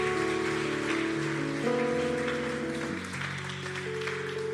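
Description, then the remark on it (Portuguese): A church audience applauds the Lord and the word of God in a steady, dense wash of applause lasting several seconds, with sustained organ-like chords shifting underneath and no one speaking. “Aplauda o Senhor. Aplauda a palavra de Deus.”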